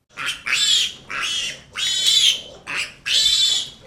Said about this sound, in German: Die Ferkel quieken kurz vor Angst, wenn Landwirt Thomas Link sie in die Hand nimmt